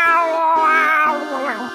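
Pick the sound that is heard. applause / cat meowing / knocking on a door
cat meowing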